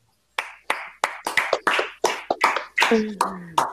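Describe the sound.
About a dozen sharp hand claps in a quick, slightly uneven rhythm, fairly loud, with a short voiced sound blending in near the end.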